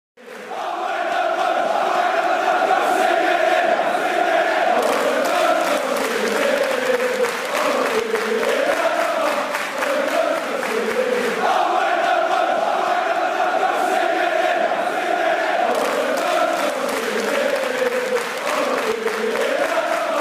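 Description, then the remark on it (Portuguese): A large crowd of Chelsea football fans chants in unison in a stadium, a loud, sustained sing-along with rising and falling melodic lines, continuous for about twenty seconds with a dense roar underneath. “ouço cantos da torcida do Chelsea vindo aí, cara.”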